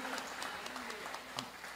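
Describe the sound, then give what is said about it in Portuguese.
A church audience applauds the Lord for the life of the guitarist and his wife, with dense, steady clapping that stays fairly loud throughout, individual sharp claps poking out of the wash, with a faint voice murmuring underneath. “Você pode aplaudir o Senhor pela vida dele e a sua esposa.”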